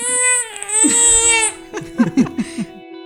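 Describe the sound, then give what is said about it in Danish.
A baby cries: one long, high wail, then a series of short, choppy sobbing bursts as the crying breaks up and fades. “lige får lov til at tage sig lidt af sin baby”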